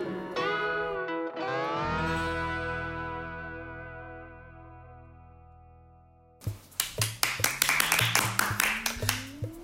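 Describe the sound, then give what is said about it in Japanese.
A sustained, effects-laden electronic tone rings out, then gives way to a burst of brisk, rapid hand clapping over a slowly rising tone, the claps loud and sharp until the end. “拍手から始まりました また始まりました始まりました今日も副業理美容師チャンネル”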